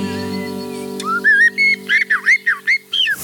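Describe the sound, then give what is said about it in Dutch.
A bird sings a quick series of clear, fluting whistled notes, about nine short rising and falling phrases, distinct, in a garden with other birds in the background, following a second of low steady hum. “En nu hoor je ook de andere vogels op de achtergrond en zo van die tuin.”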